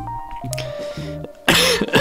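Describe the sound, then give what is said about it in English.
A quiet stretch with a faint steady hum breaks into a loud, harsh cough near the end, followed by a second rough burst. “and every time I cough, it's correct.”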